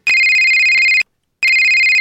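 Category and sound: signal or alarm, telephone ringtone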